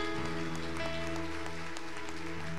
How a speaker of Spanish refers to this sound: Denle un fuerte aplauso por esta persona.